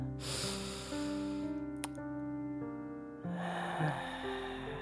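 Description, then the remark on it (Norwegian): A slow, deep, relaxing breath drawn in with eyes closed and then released in a long airy exhale, clearly audible over a soft, sustained musical drone with no talking. “Lukk øynene, pust.”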